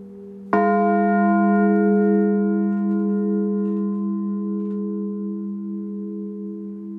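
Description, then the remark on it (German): Three old church bells, together about 2,200 years old, struck together in one clear stroke, then a long, rich ringing hum that slowly fades over several seconds, with no voices. “Den Nachhall der drei zusammen rund 2200 Jahre alten Glocken noch im Ohr geht's über dicke Holzläden hinüber in den Nordturm.”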